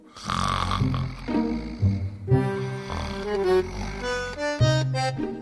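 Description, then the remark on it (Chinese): Loud, drawn-out snoring, apparently voiced by a person imitating a professor sleeping soundly: several rasping, throaty breaths with wavering pitch, continuous for a few seconds with no other talking. “隔壁房间那教授啊，打着呼噜，睡得可真是香啊。”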